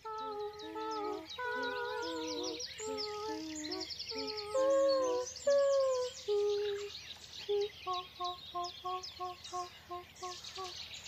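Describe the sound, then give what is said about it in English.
A busy dawn chorus of chirping, trilling birds fills the background while human singers answer them with sustained, wordless melodic phrases, later breaking into short repeated notes, fairly loud, performed for the BBC's celebration of International Dawn Chorus Day. “As the birds sang, they sang back.”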